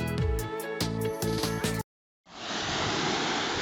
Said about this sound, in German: Ich laufe auf der Insel Rügen am Strand entlang. Die Wellen kommen und gehen. Und sie bringen Dinge mit, die verloren gingen.